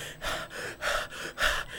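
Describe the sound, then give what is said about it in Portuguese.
A voice imitates heavy panting: four quick, breathy gasps in a steady rhythm, each a rough burst of air, fairly loud with no words. “abriu a porta, deu de cara com a mulher dele pelada, ofegante,”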